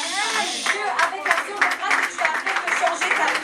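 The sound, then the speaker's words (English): Many hands clap in thanksgiving during a church offering, a quick, uneven patter that continues steadily throughout, mixed with cheering or excited voices at a fairly loud level. “Oh, if I were you, I clap my hands”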